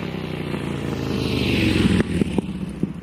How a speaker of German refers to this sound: Zweitaktmotoren die ne, von Mofas oder Vespa heißen die, glaube ich, heute, die werden jetzt abgelöst durch Elektromotoren.